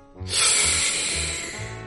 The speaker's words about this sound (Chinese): 好了，现在深吸一口气。红水壶命令道：“于是，水壶、暖壶、红水壶、茶壶和喷壶一起来吸气。